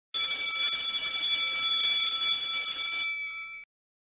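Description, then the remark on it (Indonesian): A school bell rings to signal the start of class on a cloudy, windy morning in the rainy season, continuously for about three seconds, a loud, bright metallic clatter with a steady tone, then cuts off and its ringing fades briefly into silence. “Seperti biasa, Suasana sekolah ramai, hingga tiba saatnya bel masuk kelas pun berbunyi.”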